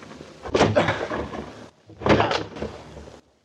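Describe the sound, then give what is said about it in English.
Two heavy, booming crashes against a wooden door as it is broken down, spaced about a second and a half apart, each followed by a rattling, splintering rumble. Loud, with no talking. “Rosa, step to one side. I'm going to break down the door.”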